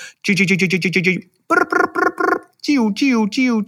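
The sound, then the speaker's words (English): A person imitates a mockingbird's song with their voice: three loud bursts, each repeating one short whistled phrase several times before switching to a new one. “But in mockingbirds, they have to repeat it.”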